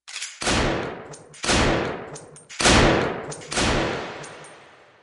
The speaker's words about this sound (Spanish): acostumbrada al ruido de los disparos, no escucharon aquellos que terminaron en el cuerpo del cachetes